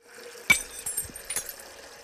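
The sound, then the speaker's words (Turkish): A bright glass clink rings out with a short metallic ring, followed about a second later by a softer second clink, over faint background rustle and low thuds. “Şu bardak sesini de koyayım.”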